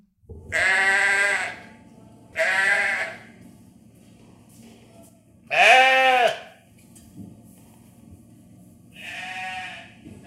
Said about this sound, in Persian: جناب آقای بز همراه بچه عزیزش بزغال کوچولو